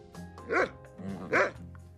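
A dog barks twice, about a second apart, each bark loud, with a steady low tonal hum running underneath.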